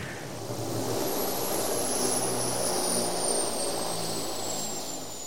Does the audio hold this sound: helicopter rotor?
yes